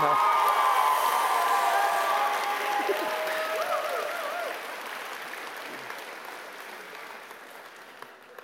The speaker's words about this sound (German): Könnt ihr einen Applaus geben einmal für die Technik, also für ihn.